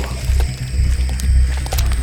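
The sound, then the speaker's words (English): Three large Rottweilers snarling and growling while mauling a man, in a loud, continuous rumble with short harsher bursts over a deep, churning low end. No voices are heard. “I watched as three of the biggest Rottweilers I'd ever seen torn into Carlos so fast he barely had time to scream”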